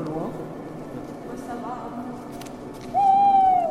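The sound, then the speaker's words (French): A single long, clear owl hoot rings out loudly near the end, steady then dipping slightly, following a stretch of low murmuring voices and background rumble. “Oiseau de nuit.”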